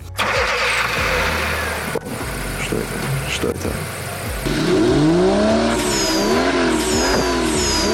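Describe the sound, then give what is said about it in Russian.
A yellow sports car's engine starts and roars loudly, its revs climbing and falling in repeated surges, while a voice briefly asks something over the rumble. “Какая шикарная машина. Ох, какой нерев.”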